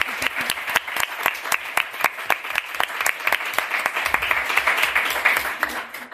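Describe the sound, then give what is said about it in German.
An audience applauds a panel at an evening event, a steady patter of many hands clapping with some individual claps standing out, moderately loud and sustained for several seconds before thinning slightly. “Einen ersten Applaus für dieses tolle Panel.”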